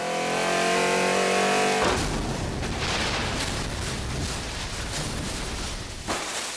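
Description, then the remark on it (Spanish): A luxury car's engine revs hard with a rising whine for a couple of seconds as it accelerates to 180 km/h, then gives way to a loud, roaring rush of the car speeding at high speed, sustained, with no talking. “Raimundo acelera a 180 kilómetros por hora”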